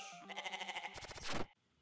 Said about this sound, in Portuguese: O som de abertura da Netflix quase foi o de uma cabra, ao invés daquele tudum.